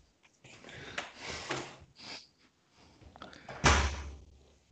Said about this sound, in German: So. so, da war die Tür zu. Genau.